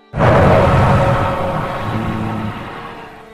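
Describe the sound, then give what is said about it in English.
A loud, gravelly roar from a large feathered dinosaur-like creature, its head lifted high, bursts in abruptly and rumbles on for about three seconds, slowly fading, with no voices present. “The creature lifted its head high and let out the roar again”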